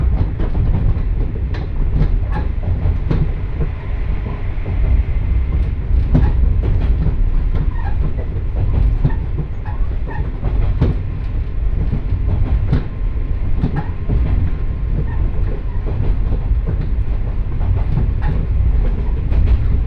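A Johana Line train runs from Yuden to Johana, rumbling steadily along the rails, with a loud, continuous low roar and irregular clicks and clacks from the wheels over track joints; no one speaks.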